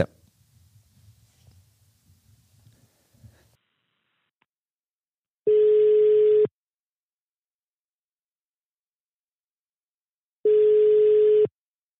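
Two loud, steady telephone ringback tones, each about a second long and spaced several seconds apart, follow a few seconds of faint low rumbling; no one speaks.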